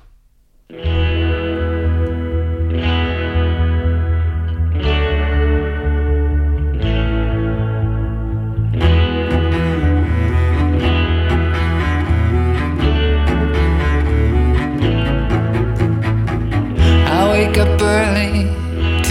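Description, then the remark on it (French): A calm new song, used as soundtrack to the third season of the Netflix series Sex Education, with warm, sustained chords swelling in a slow pulse, then a fuller, steadier section with light percussion and effect-laden textures. The music plays loud, with no voices. “c'est l'occasion de diffuser un de ses nouveaux titres, servant de bande-son à la troisième saison de la série Netflix Sex Education.”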